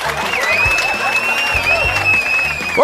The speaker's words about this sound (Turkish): Ha, siz de alkışlayın beni ha. Evet alkışlayın bu Allah'ın manyağı biraz daha cesaretlensin.